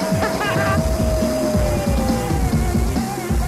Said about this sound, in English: Man, this engine is really smooth.